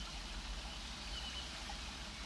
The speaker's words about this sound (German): dann ist das der kleine Bachlauf, an dem ich hier sitze.